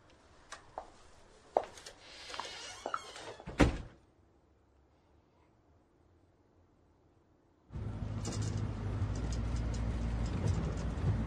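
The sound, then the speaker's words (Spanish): A door opens with a series of faint clicks and rattles, ending in one solid thunk, as someone opens it to let another person leave. Silence follows, then a steady low rumble like a running engine fills the rest. “Le abre la puerta para que se vaya.”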